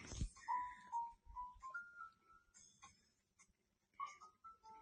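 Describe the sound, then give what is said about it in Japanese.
A person imitates a sheep with wavering, drawn-out bleats, fairly loud, a couple of quivering baas followed by a short pause and one more at the end. “読む羊になって”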